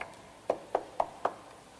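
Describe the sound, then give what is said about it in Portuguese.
Four quick, evenly spaced knocks on a wooden door, moderately loud, with no voices, followed by quiet. “Eu bati. Bateu na porta.”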